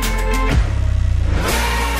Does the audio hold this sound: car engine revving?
yes